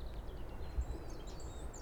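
Faint, high chirps from a small bird repeat several times on a fine day along a trail, thin and brief against a steady outdoor rumble, with no one speaking.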